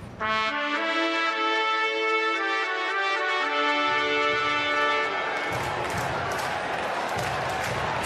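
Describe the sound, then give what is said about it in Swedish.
A stadium crowd chanting at the Kungliga Stadion in Barcelona, minutes before a new season of Spaggus begins: a loud, sustained droning unison tone holds for about five seconds, then breaks into a dense, noisy roar of many voices that continues to the end. “paggus, paggus, paggus krigar publiken.”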